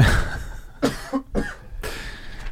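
Three rough, raspy coughs come in quick succession, each a short harsh burst with brief gaps between, over a faint background hiss, with no talking.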